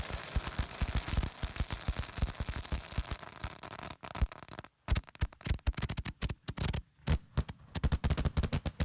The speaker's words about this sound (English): all the firecrackers went out, and then you hear just the salutes. Perfect.